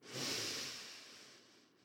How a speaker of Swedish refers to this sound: Och så andas vi in tillsammans genom näsan. Fyll dina lungor med luft. Andas in.